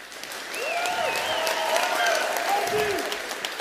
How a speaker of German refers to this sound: Wir üben jetzt mal kurz Applaus. Einmal Lärm bitte.